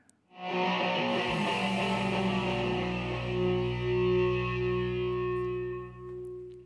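A loud rock song with heavily distorted electric guitar, thick sustained chords ringing out steadily for several seconds before dipping briefly near the end. No voices are heard.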